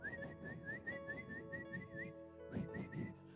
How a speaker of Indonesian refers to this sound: I'm leaving Jerusalem to go to Jericho. Saya meninggalkan Yerusalem pergi ke Jericho. And, and I'm just whistling. Dan saya sedang bersiul.